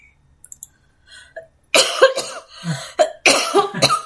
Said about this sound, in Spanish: No, la estoy tomando para no toser, pero ya ah. tuve que toser.